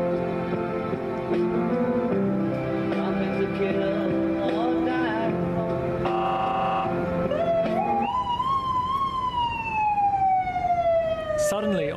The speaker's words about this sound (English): the US side, the Border Patrol sirens fire up. A couple of the patrol vans race down the hill. Somebody had apparently crossed into an unauthorised area.